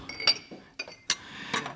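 Glasses and dishes clink together as they are handled, four bright irregular knocks over a quiet background, with no voices.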